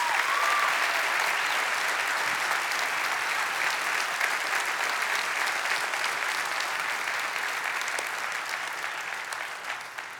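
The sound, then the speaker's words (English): Steady, sustained applause from an audience thanking a guest for about ten seconds, a dense crackle of many hands clapping at once that gradually thins and fades toward the end. “So can we again thank Vernon Wells?”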